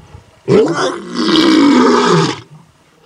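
A lion lets out one loud, close roar lasting about two seconds, deep and rough with a growling, rasping texture, then it breaks off into a brief low rumble.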